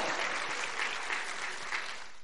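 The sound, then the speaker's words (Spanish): A crowd applauding the women panelists steadily, dense overlapping claps forming a continuous bright wash of sound at fairly even loudness, with no voices standing out. “¿Quieren darle un aplauso a estas mujeres panelistas?”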